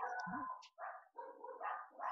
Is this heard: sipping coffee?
no